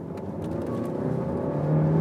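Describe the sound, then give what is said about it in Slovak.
A car engine, with speaker sound enhancement switched off, hums steadily, then picks up and accelerates with the gearbox in sport mode, its drone rising in pitch and growing louder over the last moments. No one speaks. “Čiže toto je len čisto zvuk motora. A ja aj zrýchlim túto troška, neboj sa.”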